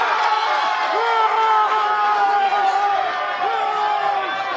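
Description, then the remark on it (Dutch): A large stadium crowd roars in celebration after a goal that makes the score 2-1 in a match involving Den Bosch, a loud continuous wall of cheering and shouting with rising whoops, sustained without a break throughout. “Ja, het gaat los hier nou. Men hors, men springt, men danst.”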